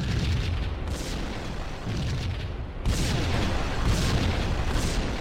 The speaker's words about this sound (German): Aber wenn wir in diesem Raum nach unten gucken, hat der einen vergitterten Boden. Wir können nach unten schießen auf die Gaspullen und sprengen damit ein Loch in die Wand bzw. eine Tür auf unter uns.